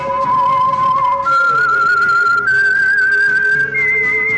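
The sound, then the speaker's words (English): A loud whistled melody of long sustained notes that step upward in pitch, carried over a soft, low musical backing, with no talking, from the radio show The Whistler. “The Whistler.”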